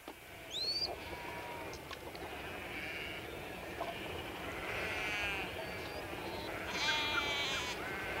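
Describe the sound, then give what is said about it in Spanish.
A flock of sheep bleat repeatedly during the annual shearing season on a ranch in Tierra del Fuego, several overlapping wavering calls rising over a steady outdoor rumble, growing busier toward the end. “Ahora viene, termina la esquila, va a venir el rodeo de los corderos y después se largan a sus campos y después en el invierno de aquí tienen que ir hasta Camero y van para abajo.”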